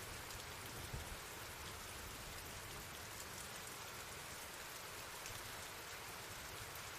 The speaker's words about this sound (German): Es war extrem windig und gossen Ströme, als ich an jenem Oktoberabend meine Schicht gegen 21 Uhr im Krankenhaus